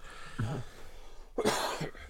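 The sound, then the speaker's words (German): A short throaty sound followed by a louder, harsh cough burst, fairly quiet overall, with no talking around it. “Ein Huste!”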